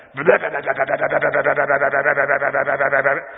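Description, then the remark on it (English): A man's voice imitates a hornet's buzz, sounding like a revving motorcycle: one sustained, pulsing drone lasting about three seconds, loud with a steady rapid flutter. “When a hornet stings you, it just keeps going. When I think, that is awful. Especially when they're like, and they sound like a guy with a motorcycle.”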